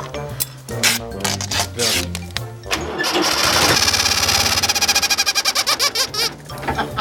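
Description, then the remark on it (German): An engine sputters and revs, then a rapid, squeaky honking rhythm pulses over it from a rubber chicken put on the exhaust pipe, squeezed by the exhaust bursts, loud with no talking. “So, dann wollen wir jetzt das Gummihuhn mal auf den Auspuff.”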